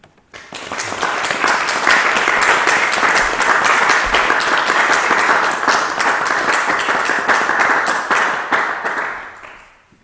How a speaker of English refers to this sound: so a round of applause for Pat Malhotra.